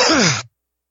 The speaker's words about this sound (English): oh, sorry. I thought I muted it when I coughed.